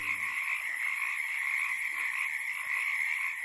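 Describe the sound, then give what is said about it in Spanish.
A dense chorus of frogs croaking continuously in a forest in Ecuador, many high, ringing calls overlapping into a steady, even wall of sound with no talking. “Si solamente mencionamos las ranas que viven en sus bosques, hasta ahora se han contado 570 especies distintas y podrían ser más.”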